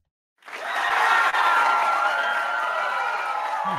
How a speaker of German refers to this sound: Ich warte, bis der Applaus durch ist.